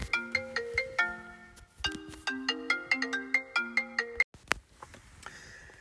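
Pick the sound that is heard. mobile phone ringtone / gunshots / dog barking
mobile phone ringtone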